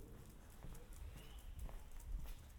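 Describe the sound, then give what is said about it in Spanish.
Steady clip-clop of hooves echoing under a small road bridge while passing beneath the road, a few strikes per second, moderately loud, with a hollow reverberant ring and no talking. “justo pasamos por debajo de, de la carretera. Hay un pequeño puente. Podrás escuchar el eco que hay aquí dentro.”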